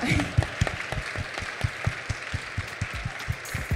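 An audience applauds steadily, many hands clapping in a dense, even patter with sharper individual claps standing out, sustained at moderate loudness throughout.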